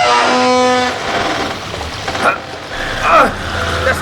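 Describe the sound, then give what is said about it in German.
Sewage water splashes and gushes in through a door with a steady, hissing rush, rising to knee height, opening with a brief low tonal hum and broken by a couple of louder swooshing surges. No one speaks. “Was ist da an der Tür? Plätschert irgendwas.”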